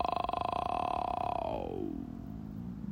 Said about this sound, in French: Euh, ah là, c'est une chèvre, Ou un mouton. Mais ils sont de l'autre côté de la Loire. Waouh